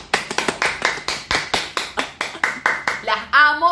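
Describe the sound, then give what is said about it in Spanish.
An applause sound effect played for teachers: loud, steady rhythmic hand claps, roughly fourteen in quick even succession, ending with a brief high, wavering vocal cheer over the last clap. “ponga los aplausos para las maestras ya.”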